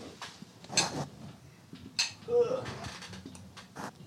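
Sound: drinking glasses clinking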